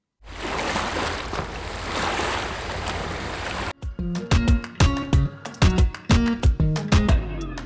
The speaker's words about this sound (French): Alors le premier va vous rappeler la mer, les vagues.